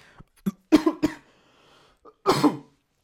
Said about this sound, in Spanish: a toser. No tengo COVID.